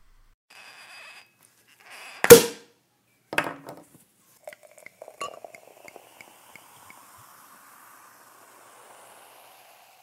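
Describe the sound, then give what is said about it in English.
A sharp pop as the cork leaves a prosecco bottle, followed by a scrape and several bright glassy clinks of glasses, then a soft fizzing hiss of bubbles as prosecco is poured. No one speaks. “So, without further ado, let's get the bubbles open and begin.”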